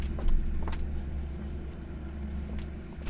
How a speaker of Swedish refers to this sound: Oj, det är motorcykel.